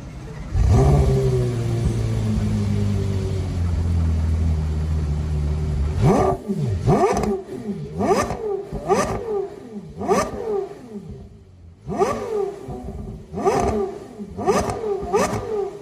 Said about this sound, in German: Habt ihr es gehört? Also direkter geht es einfach das nicht. Das ist wirklich so. Also wirklich direkt ist er schon bei 6.000, 7.000 Umdrehungen bei den kleinsten Gaspedalbewegungen. Also es ist wirklich, das kann einfach nur ein Saugmotor.